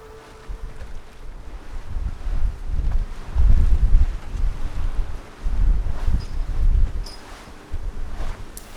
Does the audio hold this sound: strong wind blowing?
yes